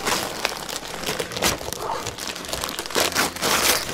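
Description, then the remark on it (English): Gift-wrapped present from a stocking, the 2013 IDW book Slayground, being unwrapped, wrapping paper crinkling and rustling continuously in bright, crackly bursts with a few sharper tearing crunches, steady and fairly loud with no voices. “What do you have gift wrapped in that stocking?”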